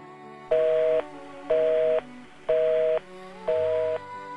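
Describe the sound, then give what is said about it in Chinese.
A telephone busy tone after a hang-up: four identical steady beeps, each about half a second long, repeating at an even rhythm with short gaps, fairly loud and alone with no talking. “电话又挂断了。”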